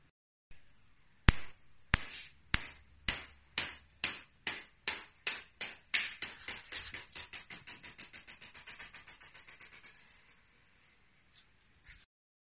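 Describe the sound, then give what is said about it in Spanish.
A small glass marble bounces on a hard floor, sharp clicks coming faster and softer as each bounce shortens, fading into a rapid rattling patter as it settles. “Esto es una canica botando.”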